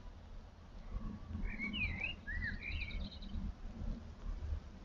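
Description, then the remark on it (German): Birds chirping outside: a few quick, high-pitched twittering calls and a short run of rapid notes, fairly faint over a steady low rumbling background, with no one speaking. “Vielleicht hörst du ein leichtes Regnen draußen oder Vögelgezwitscher.”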